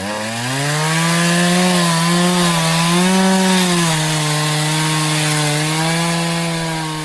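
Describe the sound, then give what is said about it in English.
A chainsaw sound effect: the engine drones steadily and loudly for several seconds, its pitch wavering slightly up and down as it revs, with no voices over it. “And like I said, we're going to do a chainsaw sound right about now.”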